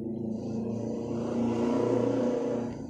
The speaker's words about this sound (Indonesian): ada motor tetangga lewat